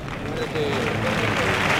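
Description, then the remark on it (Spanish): A bullring crowd gives a sustained ovation to the bull for its bravery, the second bull of the afternoon, Macendero, 525 kilos, black-coated, from Luis Algarra, fought by Manzanares; a dense roar of clapping and cheering that holds steady and swells slightly louder after the first moments. “Y ahí el reconocimiento del público, la ovación al toro la aguantar.”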